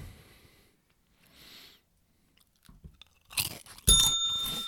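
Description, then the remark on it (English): Crunchy chewing of chips and popcorn in a few loud bursts after quieter mouth noises, with a small bell ringing briefly near the end. “This is just the sound like these are the loudest things to eat. Chips and popcorn.”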